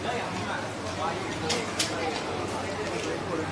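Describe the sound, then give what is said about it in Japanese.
Busy hawker centre food court ambience with a steady wash of crowd chatter and murmuring voices, a few brief clattering sounds standing out briefly over the constant background hubbub. “庶民の食堂ホーカーの音をどうぞ”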